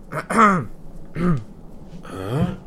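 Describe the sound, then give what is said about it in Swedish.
A voice clears its throat in three short, gravelly, voiced bursts, moderately loud, with brief pauses between each one and no other sounds around. “Sen så släpper Ristur handen om eh, svärdet och harklar sig.”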